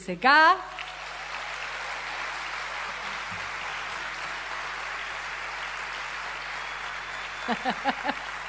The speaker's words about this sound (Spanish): Les gusta aplaudir.